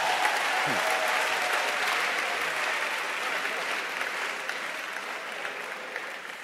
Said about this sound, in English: Clap your hands for the film stars.